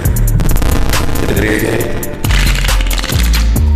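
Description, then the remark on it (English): A deck of cards shuffled quickly before a card reading: a dense, crackling flurry of crisp riffles that briefly eases off midway, then bursts again, all over a low, steady background tone. “Let me get these cards shuffled up real quick.”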